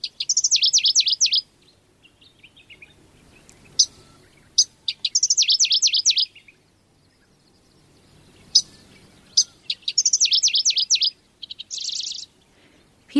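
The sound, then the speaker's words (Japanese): Middendorff's grasshopper warbler, a sparrow-sized bird about 15 cm long, singing in Toyotomi, Hokkaido, Japan: loud, repeated bursts of rapid, buzzy high-pitched notes, each phrase lasting about a second, with short chips between and a quiet background. “北海道豊富町のシマセンニュウをお届けします。”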